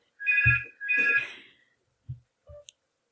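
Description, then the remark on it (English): A telephone in an office rings twice in quick, bright electronic bursts, then a few soft clunks and a click follow, like a handset being picked up. No one speaks. “haven't turned their phone off. No, the phone is in the office.”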